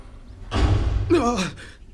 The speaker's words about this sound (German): wumm. Die Tür ist wieder zu.